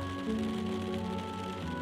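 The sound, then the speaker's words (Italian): Rain from a storm patters steadily against the window of a rickety train over the continuous low humming rumble of the moving train, an even, unbroken wash of sound with no one speaking. “Il ragazzo sta cercando in tutti i modi di non addormentarsi, ma il ticchettio della pioggia sul finestrino e il ritmo ondulatorio del treno lo stanno lentamente trascinando nelle tenebre”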